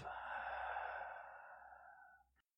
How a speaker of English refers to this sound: By the way, you are breathing out through your mouth.